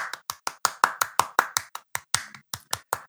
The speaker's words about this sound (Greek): Σαν αληθινό είναι αυτό το, το χειροκρότημα, Πώ πώς έχουμε το... φτιάξει αυτά τα edit τεχνολογία να πούμε. Το είχα έτοιμο, ρε. Το είχα, το είχα γραφίσει, ρε, πριν και το πάτησα ένα κουμπί mm. και έπαιξα.